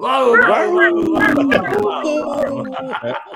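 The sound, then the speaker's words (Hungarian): On a count of three, several people bark, yip and howl together in loud, overlapping voices, imitating a pack of dogs. The noisy chorus runs continuous for a few seconds. “Hármat számolok, és akkor ugatni kell, mert kutyák vagyunk.”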